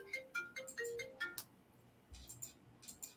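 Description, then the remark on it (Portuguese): A mobile phone that was not put on silent plays its ringtone, a quick melodic run of bright electronic notes, then pauses and resumes with a few softer chiming tones, fairly quiet and with no one speaking. “senha do telefone, esqueci de pôr no silencioso.”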